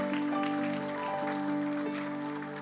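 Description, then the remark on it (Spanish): A crowd claps steadily for Christ for a couple of seconds, a dense patter of many hands, with sustained musical tones holding underneath the applause. “Dele ese aplauso fuerte a Cristo porque Él es bueno”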